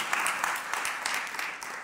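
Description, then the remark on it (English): Sustained applause from a crowd in appreciation of activists who marched in Manhattan for Gaza and for health care, a dense, steady patter of many hands clapping at an even loudness throughout, with no voices standing out above it. “We can clap it up.”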